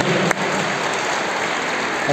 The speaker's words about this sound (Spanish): Bueno, les damos un aplauso a estas cuatro quinceañeras que hoy dan gracias a Dios por su vida,